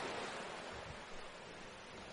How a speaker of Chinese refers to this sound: 你的双腿很疲倦，但此刻你感觉到前所未有的放松，听着海浪声，感受自己的呼吸。